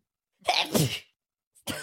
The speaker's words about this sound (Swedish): Jag skulle spela upp nysen igen.